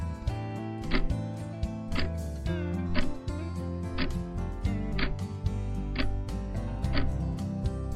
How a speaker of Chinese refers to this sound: 你有没有听到滴答滴答的声音呢？那个啊，就是时间在走路的声音哦。